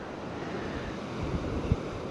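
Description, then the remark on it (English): Steady ocean surf on the Gulf Coast of Florida washes continuously against the shore, a broad low rumble with a soft hiss, plus a brief thump near the end and some wind buffeting the microphone. “Hope the waves don't bother everyone, but instead are more of a soothing sound.”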